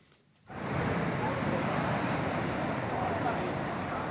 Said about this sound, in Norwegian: Bølgene slår inn over den berømte stranda Copacabana i Rio de Janeiro.